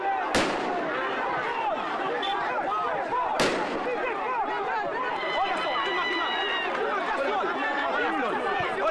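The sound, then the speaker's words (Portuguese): Two sharp, loud gunshots ring out about three seconds apart over a dense, agitated crowd during police repression of members and pastors of the Universal church in Angola on a Saturday, with many voices shouting and clamoring throughout amid people scrambling. “Tiros e corre-corre foram registados pelas nossas câmaras.”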